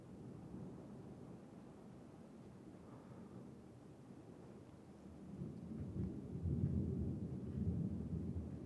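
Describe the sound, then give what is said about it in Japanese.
Deep, rumbling thunder rolls on continuously, low and heavy, swelling louder in the second half as a storm churns overhead with a faint wash of rain beneath; lightning seems to strike very nearby. “わあ、すごいな、雷が。これ聞こえますかね”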